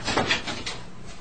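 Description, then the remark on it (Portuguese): A man opens the door of his office in a hospital late at night: a brief cluster of rattling, scraping handle and hinge noises lasting about a second, fairly quiet, with no voices. “Ele levantou-se e foi abrir a porta.”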